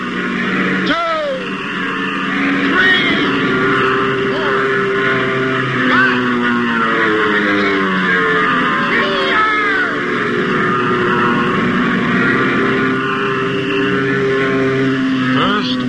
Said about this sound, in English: hey, look, the planes are taking off.